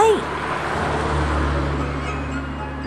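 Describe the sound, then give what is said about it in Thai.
A steady, low engine drone rumbles continuously throughout, like a vehicle being driven, with a faint rising tone at the very start and no break in the loud, even hum. “จากนั้นก็ได้มีเสียงปิดประตูดังปังและเสียงเครื่องยนต์ก็ได้คำรามขึ้น เครื่องยนต์นั้นได้ส่งเสียงดังตลอดทั้งทาง”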